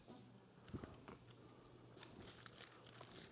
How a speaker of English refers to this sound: Go over to uh, um, 2 Corinthians. 2 Corinthians. Come on, I want to feel a breeze from the pages turning. 2 Corinthians